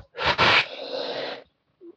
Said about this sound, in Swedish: Precis. Och så andas du in.